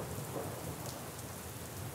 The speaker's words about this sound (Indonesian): Namun terimalah bahwa hujan-hujan itu datang untuk kita. hujan itu datang untuk kita. Walaupun bersama dengan gemuruh, deras,